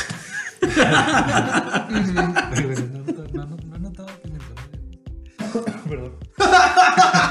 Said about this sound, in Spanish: Tosemos. Perdón.